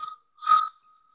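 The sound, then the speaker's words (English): A voice imitates a train whistle: a thin, steady tone held for about a second, with a brief breathy swell in the middle. Fairly quiet, with no talking. “Nice trained whistle.”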